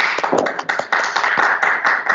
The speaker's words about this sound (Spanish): Un fuerte aplauso a los que están presentes, por favor.